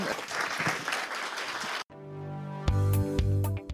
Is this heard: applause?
yes